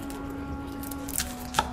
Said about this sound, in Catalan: L'endemà, jo tallava ceba quan l'encaputxat va portar un missatge del mestre d'obres pel duc.